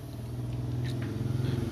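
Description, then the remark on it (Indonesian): A motorbike engine drones steadily with a low, pulsing rumble that holds at a fairly even level through the short stretch, no voices over it. “ntar ada motor”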